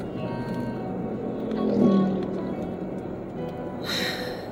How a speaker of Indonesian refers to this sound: Ini suaranya nggak nggak banget ya. Karena aku lagi nyetir. Pasti nanti ada suara jeduk-jeduknya.